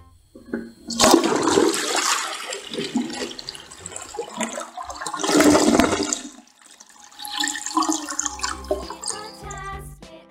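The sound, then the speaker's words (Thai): A toilet flushes, a loud rushing surge of water that swells twice over several seconds, then tapers into gurgling and trickling refill sounds. No one speaks. “โหยพี่เรามาวันอะไร นี่มันเสียงส้วมชักโครกชัดๆเลย น้องๆ ค่ะน้องๆ ได้ยินไม่ผิดค่ะ เสียงชักโครก”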